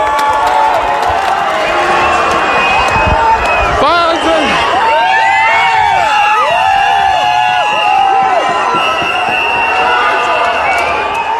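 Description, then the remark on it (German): A large crowd of Querdenker protest activists storms the Reichstag building in Berlin, a dense, continuous roar of many voices with cheers and whoops rising above it. One voice calls out briefly. “Hier hört man, wie Aktivisten der Querdenker den Berliner Reichstag stürmen.”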